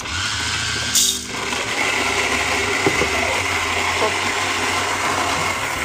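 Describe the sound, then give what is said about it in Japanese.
A Kalita coffee grinder grinds 24 g of beans fairly coarsely for drip coffee, running steadily throughout, a loud, continuous whirring grind with a gritty texture from the beans, holding an even level with a brief clatter near the start. “これ絶対うるさいよねこれ絶対うるさいよね みんな大丈夫ちゃんと聞こえてるはいカリタで今ちょっと粗めにちょい粗めに弾いてます”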